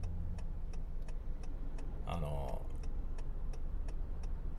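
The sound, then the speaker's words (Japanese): Steady low road rumble fills the inside of a moving car while a regular, fast ticking runs throughout. A man briefly says a word partway through. Recorded as an in-car test of an AUDIX microphone while driving, using an F6 six-channel recorder supplying phantom power. “ドライブ車中収録テストです”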